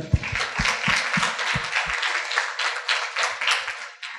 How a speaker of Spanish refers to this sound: Bueno, pero un aplauso